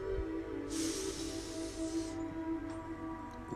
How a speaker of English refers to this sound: So, breathing in through the nose,